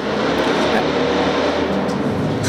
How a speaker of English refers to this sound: That's a heck of a truck.